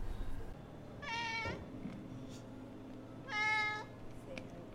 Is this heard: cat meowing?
yes